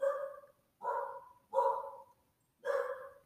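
A dog barks four times in a steady rhythm, each bark loud and sharp, with short pauses between them and no voices.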